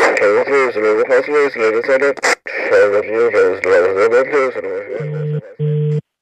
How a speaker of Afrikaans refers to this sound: Tweerigting radio's.